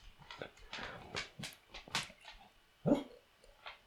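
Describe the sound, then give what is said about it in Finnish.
A dog named Rakas lets out a series of short, high-pitched yips and whimpers with one louder bark near the end, irregular in rhythm. “Mietin, että onko rakkaalla kimakampi ääni kuin Verden koiralla”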